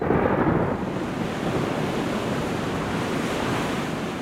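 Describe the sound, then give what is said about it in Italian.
Sea waves break on a shore in a steady, loud roar of surf, with a slightly stronger surge at the start and a constant wash of noise throughout. No voices. “Però io quando vedo il mare sto meglio.”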